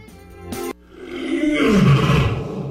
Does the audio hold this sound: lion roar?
yes